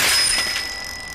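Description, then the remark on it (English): A new child's bicycle, thrown off a building, crashes down with a loud metallic clatter, its bell ringing out sharply and then fading away over about a second. No voices. “Now, the new bike your kid wants.”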